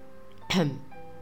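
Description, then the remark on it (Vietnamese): A single short, dry cough or throat clear from a man, fairly loud, cutting through faint background hum before and after. “hắn ho khan một tiếng làm như không có việc gì nói”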